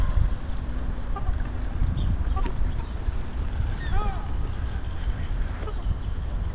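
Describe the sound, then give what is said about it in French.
Black swans call out with a few scattered honking cries, the strongest cluster coming midway, over a steady rumbling outdoor background. “Et là, ce qu'on entend en fait, c'est quoi C'est les signes, je pense.”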